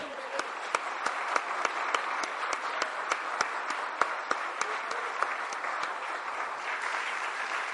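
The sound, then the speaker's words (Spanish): An audience applauds the Lord steadily, a dense wash of many hands clapping with sharper individual claps standing out throughout, sustained at an even level for several seconds. “Damos un buen aplauso al Señor.”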